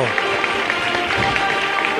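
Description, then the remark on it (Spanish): A large crowd packing the Plaza de Pilato in Seville during Holy Week applauds steadily as a procession float (paso) passes, a dense wash of many hands clapping at once, fairly loud and continuous with voices murmuring underneath; sun showing through high clouds. “Ahí está abriendo ahora el compás y el aplauso”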